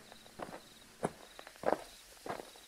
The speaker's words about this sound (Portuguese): Ouço a porta do carro bater e o som dos passos se aproximando.